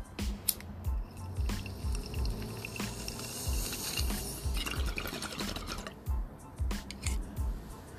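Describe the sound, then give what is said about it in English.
Rapid, gurgling water bubbling in a bong as someone takes a bong hit, a steady stream of burbling pops with small liquid bursts over about eight seconds, no talking. “So let's take this bong hit, and then we'll do our last spin, and then we will say our goodbyes for this Smokeout Saturdaze.”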